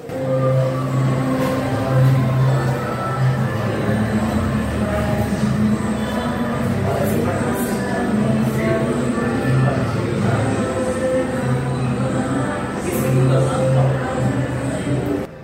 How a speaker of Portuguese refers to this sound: Então dá para ouvir que está tocando uma música, é o filme.